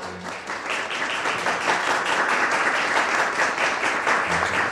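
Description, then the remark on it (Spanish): Sustained applause from a large theatre audience after the first act of a play, a dense crackle of many hands clapping at a steady, fairly loud level throughout, without any voices standing out. “Aún se escuchaban los aplausos.”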